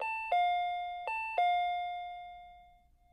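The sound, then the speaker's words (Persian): A doorbell chimes a two-tone ding-dong twice in quick succession, clear, the last tone ringing out and fading slowly into silence; rung at the door of Mori's house by the driver of a white Tiba car. “پلاک خونه موری رو نگاه کرد و رفت سمت در. زنگ زد.”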